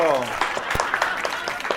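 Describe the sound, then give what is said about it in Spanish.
An audience at El Cucurucho bursts into steady applause to welcome a guest expert, a dense, bright patter of many hands clapping at once, with a voice trailing off at the start and a few sharper individual claps standing out. “Pues vamos a recibir con un fuerte aplauso a nuestro compañero”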